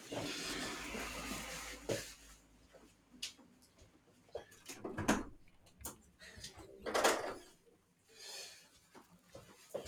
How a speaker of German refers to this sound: Oh nee, dann muss das Fenster wohl zumachen.